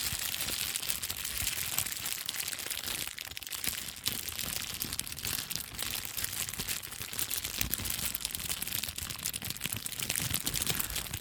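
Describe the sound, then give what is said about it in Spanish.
Cellophane being crinkled and crushed to imitate a crackling campfire, a continuous dense rustle of sharp little crackles and snaps at a steady, fairly loud level, with no talking. “Ahora, no sé cómo está sonando este fuego, espero que bien, porque el fuego se hace con papel celofán.”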